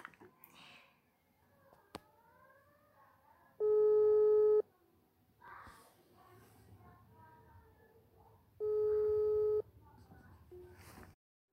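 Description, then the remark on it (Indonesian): A phone ringback tone sounds twice while calling a friend, each steady electronic ring lasting about a second and spaced several seconds apart, loud, with faint background voices and rustling in the gaps. “Coba coba coba, coba kita, telepon kita telepon.”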